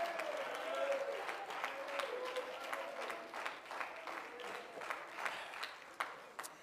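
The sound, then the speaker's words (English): An audience at an evening church service claps their hands in a steady, dense burst of applause to give God glory. It gradually thins into scattered individual claps, with a faint voice murmuring underneath. “If you believe that tonight, clap your hands.”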